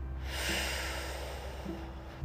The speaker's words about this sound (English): breathing out. So you draw the number two, breathing in and breathing out and drawing the number two again.